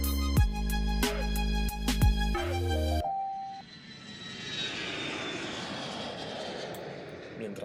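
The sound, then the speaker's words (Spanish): A short musical sting cuts off into the steady roar of a jet airplane engine taking off on a flight to Tokyo, a broad rushing noise with a thin high whine, fairly loud and sustained to the end. “Y hoy se subió un avión y se fue a Tokio”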